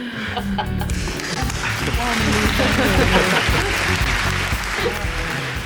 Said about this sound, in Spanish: bueno, ponme aplausos